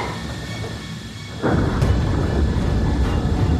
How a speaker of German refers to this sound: es hat offensichtlich eine Art Explosion gegeben. Korrigiere. Kein Druckabfall in der Kabine. Aber irgendetwas hat sich gerammt. Irgendwas stimmt hier überhaupt nicht.